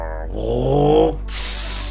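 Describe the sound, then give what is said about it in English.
A voice imitates a lifted 3500 diesel truck with a chip accelerating hard and blowing black smoke: a low, buzzing engine growl that swells in pitch, then cuts into a loud, breathy whoosh of exhaust, all brief. “So 3500 and the sound that it makes, it's like”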